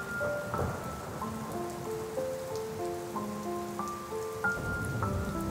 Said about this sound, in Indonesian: Di tengah deras hujan, diterpa angin yang mewujud kenangan.